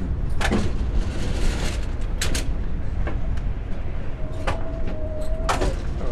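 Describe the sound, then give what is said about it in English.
Steady low rumble inside a moving passenger train on a 35-hour journey, with scattered sharp clicks and rattles and a brief faint whine near the end; no one speaks. “And yeah, we do get sort of carried away just over how nice the rest of the train is.”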